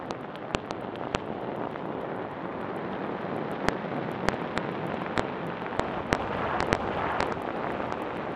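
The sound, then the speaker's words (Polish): A volcanic eruption as the explosion finally comes and lava bursts out: a steady, heavy roar fills the whole recording, broken by frequent sharp cracks and pops. The explosive snaps come irregularly, some quite loud, with no voices. “Gdy w końcu dochodzi do eksplozji i lawa wydostaje się na zewnątrz, dźwięki podobne są do startu kosmicznej rakiety.”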